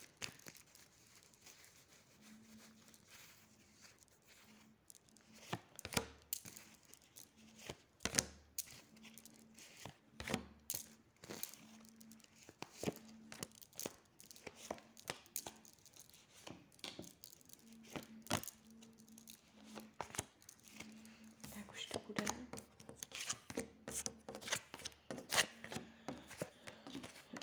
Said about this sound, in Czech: Já už se dívám na vaše fotky, míchám u toho karty a podíváme se teda spolu, co nám rod řekne o tomto vztahu.